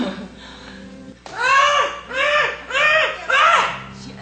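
An autistic girl on a shopping outing to Busanjin suddenly breaks into loud, distressed screaming, showing extreme anxiety: four sharp, wailing cries in quick succession, harsh, after a brief stretch of quieter background sound.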